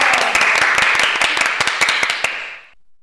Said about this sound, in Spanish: ¡Aplausos!